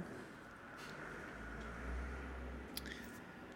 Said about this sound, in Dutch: Ik zal even wachten op de vrachtauto.